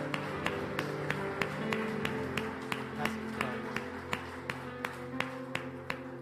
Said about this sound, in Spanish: Vamos a darle un aplauso en acción de gracias al Señor.